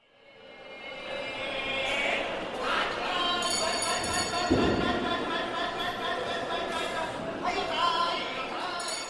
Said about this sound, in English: That is the sound of a tuna auction at the world's biggest fish market, Toyosu Market in the Bay of Tokyo. Bells ring, the men huddle up with a shouting, bidding goes.